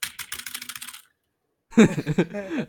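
A quick burst of fast typing on a computer keyboard, dense rapid key clicks for about a second, then a short silence before someone laughs or vocalizes.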